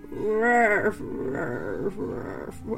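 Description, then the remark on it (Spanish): A person vocally imitates the distorted dying-battery sound of an old stuffed toy dog: a drawn-out tone that sags in pitch, then low, gravelly growling noises, fairly loud. “pero ya además es cuando se apaga la pila, bueno, tiene poco que empieza con un sonido satánico de bueno, obviamente o sea, sí fue como voy a morir ese perro endemoniado.”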